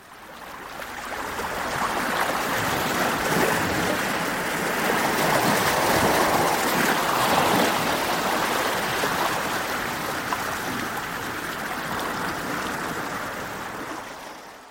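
sea waves surf

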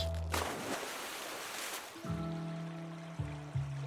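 flowing stream water

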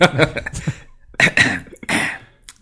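throat clearing

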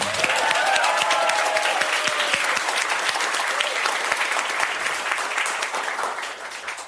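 warm audience applause

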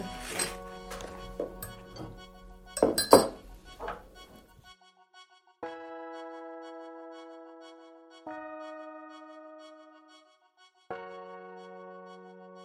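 teacups clinking

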